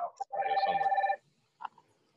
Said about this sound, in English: Whose phone is yeah, ringing?